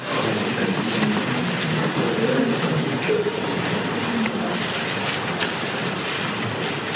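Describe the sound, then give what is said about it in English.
A steady, dense rustle of many Bible pages being turned at once by a church audience looking up Luke chapter 23, with soft crisp flicks layered throughout and no one speaking. “Listen to all those Bibles turning.”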